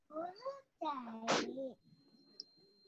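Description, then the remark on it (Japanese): A young child's high-pitched voice lets out two short, sing-song vocal bursts, the second ending in a sharp squeal, somewhat in the background, followed by quiet room noise. “お子さんの声が聞こえますね。”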